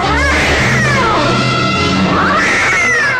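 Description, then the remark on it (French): A cat yowls loudly and close by, its long wavering meows rising and falling in drawn-out cries over a dense, rumbling background for a few seconds. “Au point de devenir bientôt la proie d'un chat.”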